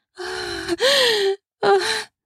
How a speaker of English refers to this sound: she gasps as she clasps her hair, twirling it between her fingers, not quite sure what to do with her hands at this point and she grabs the couch.